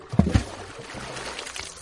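A bag holding books and food plops into a stream with a couple of quick splashes, then the stream keeps burbling and trickling steadily for the rest of the moment, with no voices.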